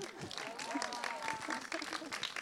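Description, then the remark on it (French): An audience applauds, a dense, steady patter of many hands clapping throughout, with a few voices and cheers rising through the clapping. “Non, mais aussi, moi, j'aimerais que vous l'applaudissiez”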